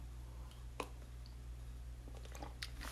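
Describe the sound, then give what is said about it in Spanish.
Quiet mouth sounds of someone sipping coffee: a few soft wet clicks and a small gulp scattered over three seconds, with a steady low hum underneath and no talking. “Déjenme darle un traguito a mi café.”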